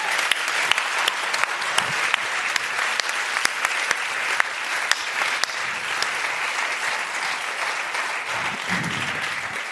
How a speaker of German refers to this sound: Ja, Applaus Vielen Dank.